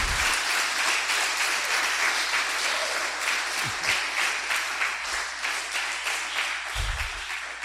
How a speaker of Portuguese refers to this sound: Aplauda o Senhor por isso. Aplauda, pode fazer barulho.